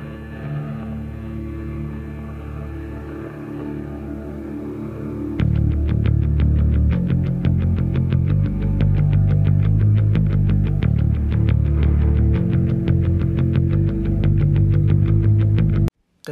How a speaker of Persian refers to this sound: قسمتی که گوش دادین یه قسمتی از آهنگ بود از آهنگی که امشب قراره در موردش حرف بزنیم